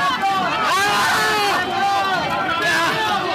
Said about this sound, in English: The yelling as a Capitol police officer caught in the crush of the crowd.